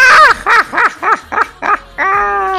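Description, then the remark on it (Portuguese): A loud voice imitates the Joker's maniacal laugh: six rapid, rhythmic cackling bursts that end in one drawn-out, held note. “foi, uma, foi uma tentativa falha de fazer a risada do Coringa, gente.”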